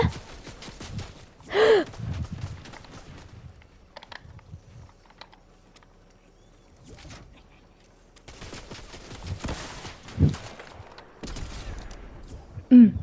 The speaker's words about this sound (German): Gut, er ist cracked, er ist cracked. Hacker gefühlt, weil er, der Schuss an mir vorbeigegangen.